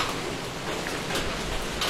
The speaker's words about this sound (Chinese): 啊，这雨声非常好听。然后的话。于是，我起床，准备给大家把它录下来。